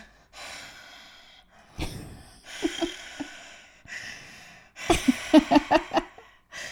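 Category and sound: vocal imitation, imitated heavy loud breathing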